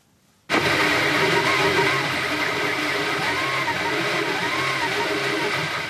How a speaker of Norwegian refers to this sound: Dette er lyden av en 3D-skriver. Den kan kjøpes av hvem som helst og brukes til å lage hva som helst, også våpen.